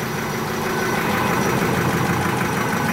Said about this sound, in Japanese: ほら印刷だて新聞が上がってったんですねすごいっしょこれ回ってますから気をつけてくださいね